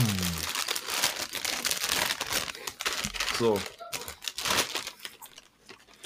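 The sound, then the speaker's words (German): A chip bag is opened, crinkling and rustling loudly and continuously with sharp crackling bursts, while a voice briefly speaks over it. “Mach sie auf. Ey, du, siehst es jetzt nicht, aber ich habe auch Chips.”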